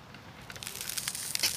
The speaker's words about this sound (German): Das, das knistert und knackt hier so komisch auf dem Eis und oh, hier ist sogar ein Riss.